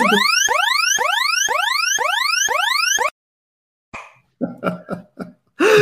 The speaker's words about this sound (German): Aber weißt du, warum ist, der Alarm losgegangen ist?